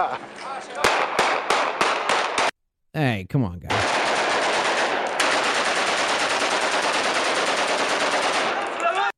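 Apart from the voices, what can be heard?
rapid gunfire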